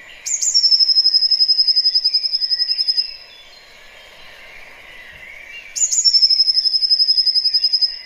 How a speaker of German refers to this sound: Also für mich ist das so Frühling, weil das ist auch ein Vogel, der im Sommer nicht mehr singt. Ne? Also ja. Das ist wirklich ein typischer. Guck mal, jetzt kommen die Och, Variationen.